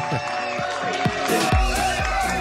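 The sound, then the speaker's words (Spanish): An audience at the show Circo Pirata claps and cheers in a dense, steady wash of noise, with deep rhythmic thumps pulsing underneath roughly twice a second and a faint held tone running through. “Muy buenas noches, gracias por los aplausos.”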